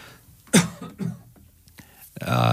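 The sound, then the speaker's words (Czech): A loud cough followed by several shorter throat-clearing rasps spaced unevenly, then a voice begins speaking at the end. “Potřebujeme si trošku odkašlet”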